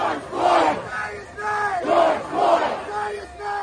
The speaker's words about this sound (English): It was May 3rd, 1971, and outside our doors on the streets of Washington, D.C., one of the biggest anti war protests in American history was taking place.